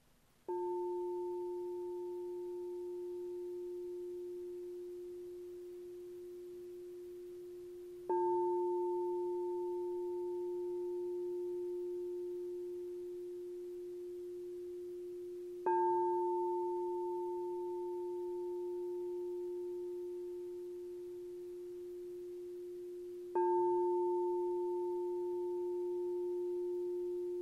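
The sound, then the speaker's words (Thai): A bell is struck four times at even intervals of about eight seconds, each clear, sustained ringing tone slowly fading before the next strike. No voices are present. “วางจิตไว้ ณจุดสัมผัสที่เกิดที่ประจรนั้นทดสอบการตั้งอยู่ จับสัญญาณคลื่นเสียงระฆัง”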